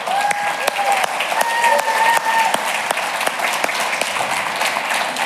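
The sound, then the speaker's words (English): An audience at a church service applauds the church staff steadily, dense clapping sustained throughout with sharp individual claps standing out, plus a few faint whistles or cheers rising above the crowd. “And uh, we have a round of applause for the church today.”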